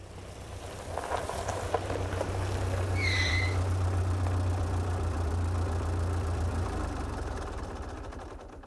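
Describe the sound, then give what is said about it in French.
A car engine idles with a steady low rumble and hum throughout, joined briefly by a short high-pitched chirp partway through. “Nous étions en automobile.”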